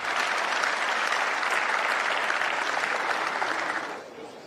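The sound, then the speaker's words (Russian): Sustained applause from a large crowd in the European Parliament, an ovation interrupting Yulia Navalnaya's speech, a dense steady clatter of many hands clapping at full volume before tapering off near the end. No one speaks. “Навальную много раз прерывали овациями, и с трибуны Европарламента она вновь пообещала, по сути, продолжить дело своего мужа.”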